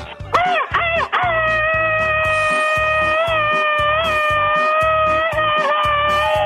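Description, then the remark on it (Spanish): A loud, rapid-fire 'machine-gun' Mexican grito: a few quick whooping yelps burst out, then one long, high, wavering cry is held for several seconds over a steady thumping music beat. “A ver, criatura del Señor, quiero que le mandes un grito ametralladora a la gente que nos escucha en Ciudad Juárez, Chihuahua.”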